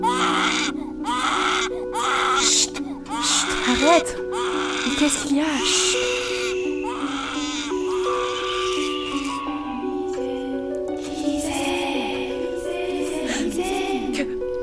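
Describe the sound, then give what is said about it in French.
A baby in a cradle wails in shrill, piercing bursts that rise and fall repeatedly, loud, while an adult voice speaks briefly over the crying. “Ses rires se muèrent en pleurs. Des cris perçants, déchirants.”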